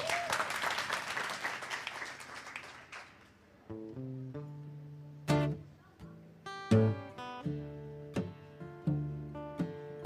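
A crowd applauds loudly for about three seconds, a dense wash of clapping that fades out as a band starts playing a sparse, rhythmic run of chords and notes.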